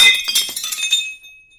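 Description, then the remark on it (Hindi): A single utensil is dropped as a signal meaning yes. It clatters with a bright metallic, glassy clang, a quick cluster of clinks over about a second, then a ringing tone that fades out. No one speaks. “अरे वो बर्तन वाला आइडिया बोलना है गिराने वाला हाँ और अगर आप की हाँ है तो प्लीज एक बर्तन गिराइए आपकी ना है तो दो बर्तन”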